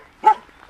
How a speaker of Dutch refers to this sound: Je hoort een beetje een, een hond blaffen. Pas op, waakhond.